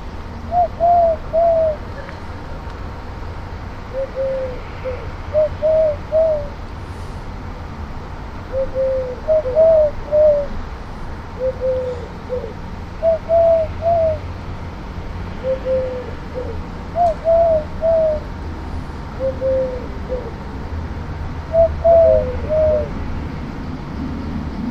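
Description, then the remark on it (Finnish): A male dove coos from a treetop over and over in a steady rhythm, each soft, low, three-note phrase repeating every couple of seconds above a faint background hum. “Naaras kävelee tässä näin viiden metrin päässä ja toi uros huhuilee tuossa puun latvuksessa.”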